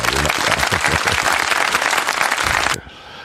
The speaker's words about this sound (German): Wie, klatschen, klatschen, klatschen. Jetzt? Ja, jetzt.